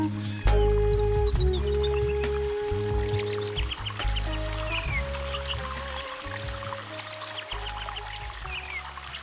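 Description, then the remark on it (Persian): Small birds chirp in quick, bright bursts outdoors in nature over a steady rush of a flowing river, with a low tonal hum running underneath throughout. “صدای پرنده ها رودخونه خیلی زیباست”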